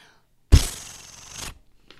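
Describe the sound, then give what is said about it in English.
A single crisp papery swish of a comic book page being turned, starting with a sharp rustle and sliding off after about a second, fairly loud. “And we dive in. Page turn noise.”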